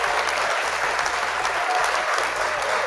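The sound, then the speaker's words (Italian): A crowd claps steadily in dense, continuous applause that fills the whole stretch, fairly loud, with no voices standing out above it. “Eh grazie, grazie, un applauso a tutti voi,”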